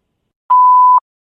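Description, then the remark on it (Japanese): A single steady electronic beep around half a second long, clear and fairly loud, an answering machine tone signaling the start of message recording. It is from an original November 2005 opening, and its tone is quite different from the current version. There is silence on either side. “発信音が鳴りましたら、メッセージをお入れください。”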